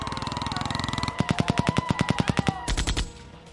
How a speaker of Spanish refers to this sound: hizo lo que pudo por apartar de su mente el estacato de las ráfagas de disparos y los horrorosos gritos de sus colegas.